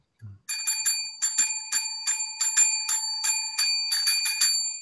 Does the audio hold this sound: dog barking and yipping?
no